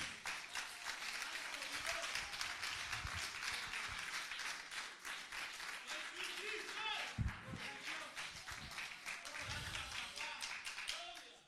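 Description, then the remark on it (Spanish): An audience breaks into sustained applause to the glory of Jehovah, dense overlapping claps filling the whole stretch at a steady, lively level, with a few scattered voices and cheers mixed in before it tapers at the end. “Den un aplauso a la gloria de Jehová si te atreves.”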